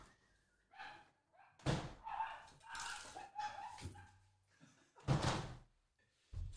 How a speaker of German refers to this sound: Dieser verfickte Hund, Alter!